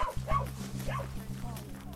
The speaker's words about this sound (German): Der Hund arbeitet dabei ohne Leine, weitgehend selbstständig. Hat er einen Menschen erschnüffelt, bellt er sodass der Hundeführer an den Fundort kommen und helfen kann.